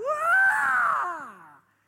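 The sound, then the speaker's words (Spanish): A man's voice lets out a loud, sustained scream reenacting his fright when someone suddenly jumped out from hiding behind a counter, rising sharply then slowly falling and fading over about a second and a half, with no other talk. “Y ya usted sabe el grito que yo pegué.”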